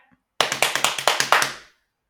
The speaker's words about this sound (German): Lass mich mal hier auf meinen Schenkeln klopfen.